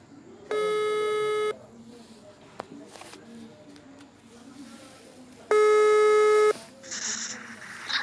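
A telephone ringback tone sounds twice, each a steady harmonic buzz lasting about a second, separated by a pause of soft background noise, with faint murmuring underneath, as a guest is called by phone for an interview.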